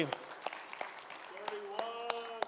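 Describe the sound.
Audience applause for the couples married 40 years, with sharp, scattered claps standing out over a steady rustling bed of clapping, while voices murmur and call out underneath toward the end.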